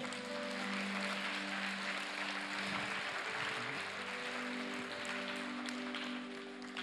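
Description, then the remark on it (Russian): An audience applauds the Lord in a dense, steady burst of clapping lasting several seconds, with sustained keyboard tones ringing softly underneath. “Можешь дать Господу аплодисменты.”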